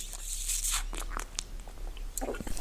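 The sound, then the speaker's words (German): A person tries to open their bottle, with irregular crackling and crinkling bursts of plastic handling over a couple of seconds and no voices. “Das wird man jetzt übrigens sehr hören, wie du deine Flasche da versuchst zu öffnen.”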